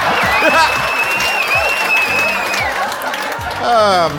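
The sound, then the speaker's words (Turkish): A show audience applauds an idealist young man steadily for about four seconds, dense clapping mixed with crowd cheers and shouting voices, with a sustained high whistle ringing over the first half. “Evet lütfen elimizi, ellerimizi bu idealist genç için bir araya getirelim arkadaşlar”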